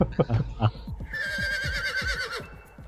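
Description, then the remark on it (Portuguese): A horse lets out a long, quavering whinny that trembles for over a second, loud, preceded by a brief burst of talking. “o cavalo continua relinchando ali.”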